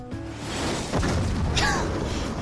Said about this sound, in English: That last scene is an explosion, a missile hitting something.